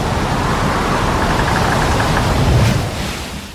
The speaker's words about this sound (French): Dans un craquement gigantesque, le toit est arraché. Des torrents de pluie s'abattent plus rien ne résiste. Les murs se lézardent et s'enfoncent.